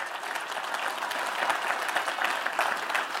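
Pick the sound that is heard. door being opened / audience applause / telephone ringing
audience applause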